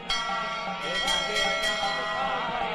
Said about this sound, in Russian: Он снова подходил к первому колоколу и с силой ударял в него.